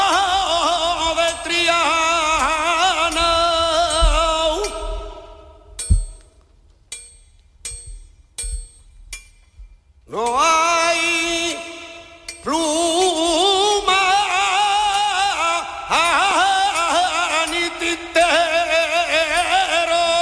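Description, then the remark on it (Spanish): An unaccompanied martinete flamenco song with a strong, ornamented solo voice, broken midway by a handful of sharp, ringing hammer strikes on metal before the singing returns. “que coja un martillo y aprenda martinete.”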